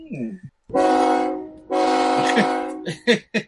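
Two loud, sustained blasts of a train horn, the second longer than the first, with brief bits of talking just before and right after.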